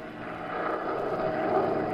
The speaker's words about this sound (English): The weather was awful. The little plane rocked, rolled, and practically stood still in midair.